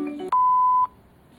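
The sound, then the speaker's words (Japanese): A single loud electronic beep, one steady mid-pitched tone held for about half a second, like an announcement chime, preceded by softer tonal sounds and followed by quiet. “ピンポンパンポン。”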